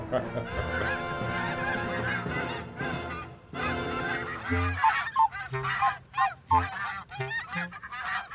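A flock of geese honks and cackles loudly and continuously, overlapping calls forming a dense chorus, then breaking into separate sharp honks toward the end.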